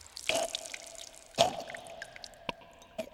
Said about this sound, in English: Blood poured from the wound, gushing from the enormous man's neck and spilling onto the floor.